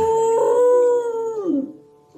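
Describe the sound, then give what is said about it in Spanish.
A female dog lets out a long, steady howl that holds its pitch for over a second, then slides downward and fades out. Loud, with no talking over it. “El piano es el perrito, ¿eh? La, perrita. la perrita.”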